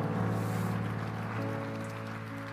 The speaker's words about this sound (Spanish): ¿Hay alguien que le puede dar un fuerte aplauso al Señor?